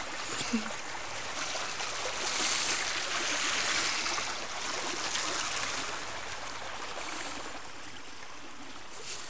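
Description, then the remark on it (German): Water being scooped from a ditch with a cup into a bucket, cup after cup, while walking along the ditch; a steady sloshing and trickling that swells and settles over several seconds, fairly even in loudness. “schöpft hier und da ein bisschen Wasser in den Eimer und nimmt immer wieder einen Becher voll mit Wasser.”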